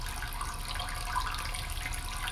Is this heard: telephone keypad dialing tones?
no